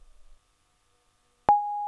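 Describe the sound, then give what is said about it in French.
After a quiet pause, a single steady electronic voicemail beep sounds, a loud sustained mid-pitched tone that holds for about half a second before cutting off abruptly. “Si je réponds pas, c'est que je dois être au boulot, mais laisse-moi un message après le bip.”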